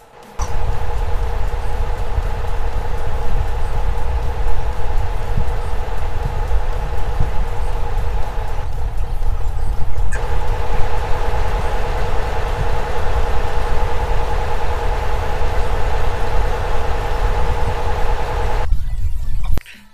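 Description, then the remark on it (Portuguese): A truck engine sound effect, added to play when the truck is tipping its load, runs steadily at raised revs: a loud continuous droning rumble with a humming tone, briefly dipping midway before carrying on and cutting off at the end. No one speaks. “Quando você está basculando, ela vai acelerar.”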